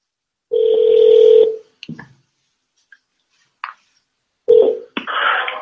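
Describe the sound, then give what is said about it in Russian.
Telephone keypad tones while calling the door company Alfador (entrance and interior doors): a long steady beep, then scattered soft clicks and a second short beep, ending in a burst of rustling line noise. No one speaks. “Для связи с отделом сервиса нажмите 1.”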